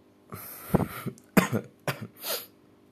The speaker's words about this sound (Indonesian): batuk kan?